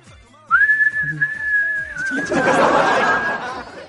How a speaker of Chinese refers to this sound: 我觉得憋尿不可怕，可怕的是在憋尿的时候，旁边有人帮你吹口哨，